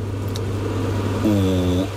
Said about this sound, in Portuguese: incrível micro prazer que é desligar um exaustor